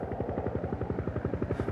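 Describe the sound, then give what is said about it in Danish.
Helicopter rotor noise from inside the cabin, with the pilot seated on the right: a rapid, steady thudding pulse over a dense low rumble, loud, with no voices. “Oppe i helikopteren, der sidder jeg ligesom til venstre med mit kamera. Til højre sidder piloten.”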